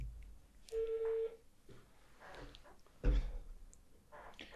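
A telephone dial tone sounds over a speakerphone, one steady beep lasting about half a second, then muffled clicks and thumps as the line stays open, with a sharper knock near the end.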